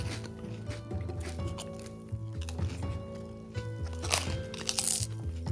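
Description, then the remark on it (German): Crunching and smacking of people chewing a crisp pastry, with a few sharper crunches near the end over a steady humming tonal background; no talking. “Und ihr hört uns schmatzen hier.”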